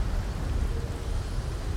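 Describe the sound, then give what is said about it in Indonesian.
A steady, dense wash of rain with a deep low rumble of thunder rolling underneath, fairly loud and continuous throughout, with no voices. “Dewi menjerit keras dan melemparkan diri ke lantai untuk menjauh bersamaan dengan silaunya petir dan gelegar guntur”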